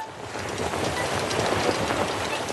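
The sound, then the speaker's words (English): Skiff, a railboat that can sail in the water and run on rails, sails through water with a steady train-like rumble and a rhythmic clickety-clack of wheels on rails, continuous and fairly loud throughout, with no voices. “As Skiff sails through the water, he sounds like this.”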